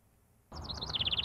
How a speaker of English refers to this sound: This is my newest addition to the show. I hope that's not too abrasive. Um, and by that, I mean my best new friend, Reginald. Um, this nice little, um, what is he, Foxtrot Sparrow, I think?